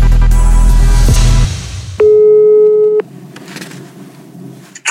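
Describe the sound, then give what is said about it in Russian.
A single steady telephone ringback tone, heard while calling a company that does polygraph tests, sounds for about a second, clear and fairly loud, after a burst of louder background noise, then fades into a quiet hum on the line. “Вот, поэтому мне интересно, будут ли компании, в которые ты сейчас позвонишь, такими же принципиальными, как я?”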